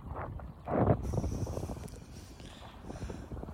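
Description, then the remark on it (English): Water sloshes and laps against a paddleboard, with irregular splashy bursts and a stronger slap near the start, over a breezy, rustling outdoor background. “It's the sound of waves on my paddleboard.”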